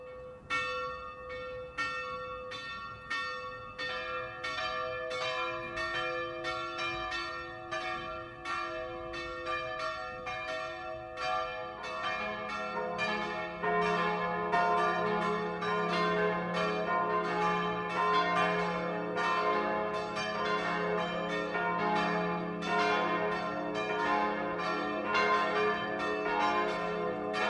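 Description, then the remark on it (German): Church bells of the Catholic parish church of St. Michael in Köfering, Upper Palatinate, in the district of Regensburg, ring the 12 o'clock noon chime in a steady overlapping peal, their bright metallic strikes building and thickening as deeper bells join partway through, with no voices. “Das Mittagsläuten kommt heute von der katholischen Pfarrkirche St. Michael im oberpfälzischen Köfering.”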